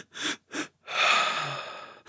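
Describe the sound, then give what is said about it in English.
Two quick, sharp inhales through the nose, then one long, steady breath out that slowly fades, a physiological sigh breathing pattern, with no talking. A new breath begins just as it ends. “If you do that as an adult, a couple in or two to three in and one long out, two to three quick in and one long out, he said on average, three to four uh, series of those uh, will take you right to rest and digest.”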